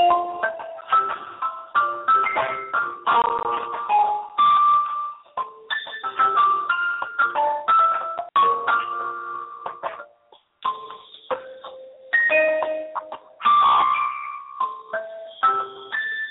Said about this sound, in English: Oh, sounds just like Miss X playing on our little electric keyboard, but it's not.